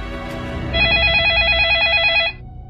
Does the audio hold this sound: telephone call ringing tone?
yes